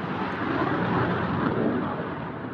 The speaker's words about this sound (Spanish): Más tarde, a eso de las 11, me despertó de la siesta un ruido terrible. Eran dos aviones de combate de la Fuerza Aérea sobrevolando Lima.